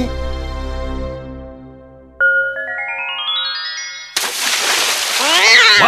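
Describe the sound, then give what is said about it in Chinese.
A low sustained tone and a rising run of bright chime notes give way to a sudden loud splash as water is thrown onto a cat, with a brief yowl-like cry rising through the spray near the end. “你干嘛拿水泼猫啊？”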